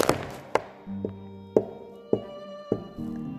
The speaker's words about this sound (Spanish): En medio de aquella angustia, oye pasos próximos a ella.